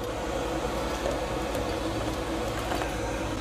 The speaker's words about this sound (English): All right, I'm adding hot boiling water. God, fucking damn it. Damn it! Okay, I got the boiling hot water. Boiling hot water, yeah. We're adding it.